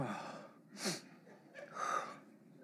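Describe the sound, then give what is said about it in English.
A yawn: a sharp, breathy intake of air followed by a longer, airy exhale with a faint voiced groan, heard alone without talking. “I don't know why I'm yawning.”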